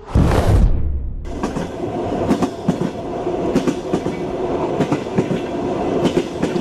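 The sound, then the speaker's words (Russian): An electric commuter train travelling from Riga, Latvia, toward Gauja about 40 km to the north rumbles along, wheels clattering over rail joints in an uneven rhythmic clack, with a steady low roar of motion and no voices. “Туда надо было добираться на электричке.”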